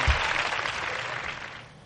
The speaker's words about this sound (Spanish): Pero venga, aplauso fuerte de gala